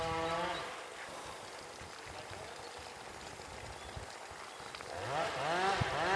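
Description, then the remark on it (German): A chainsaw drones outdoors in nature with a buzzing, harmonic whine that revs up and down at the start and again near the end, easing into a rougher, steady rumble in between. No one speaks. “Ja, schön hier wieder in der Natur mit der Motorsäge und dem Bagger und allem.”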